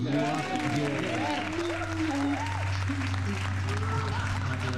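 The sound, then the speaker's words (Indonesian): Steady, dense applause fills the whole few seconds at an even loudness, with voices calling and talking over the clapping. “itu dia tepuk tangan dulu”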